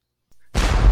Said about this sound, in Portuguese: Terceiro canhão da noite.